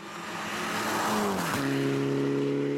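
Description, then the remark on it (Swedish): A rally car with a three-cylinder EcoBoost engine, driven by Daniel Röise in a shakedown, roars past with a sharp drop in pitch as it goes by, then settles into a steady, buzzy drone. Loud throughout, with no talking. “Det är nämligen en trecylindrig motor, en EcoBoost-motor med Daniel Röise bakom ratten.”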